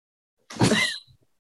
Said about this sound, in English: Did you see that? My plant just fell over. I saw something move. I was like, "That's my dog. That's my. I uh, hang on. just just explain. sorry, my dog knocked over my plant, and it's one of my like favorite plants.